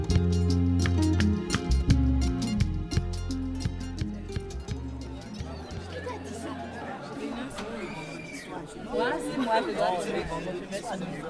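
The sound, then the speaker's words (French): A roomful of high school students chattering at once in a school boarding house, an overlapping indoor babble with no single speaker standing out, growing livelier and more scattered toward the end. “Silence tout le monde. Je ne veux plus rien entendre.”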